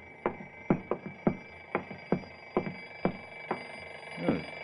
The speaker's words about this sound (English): Right here, under the floor. I'm standing over it. The suitcase. What's that? That nothing. Nothing at all. What's an alarm clock doing under your floor?